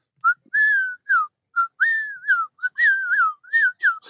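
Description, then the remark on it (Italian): A person whistles a bird-like call, a clear series of sliding notes repeated about eight times over a few seconds and getting faster, imitating the song of a bird heard in a tropical greenhouse. “ce n'è uno che, che non, non, ho individuato, che fa questo, questo fischio per cui comincia”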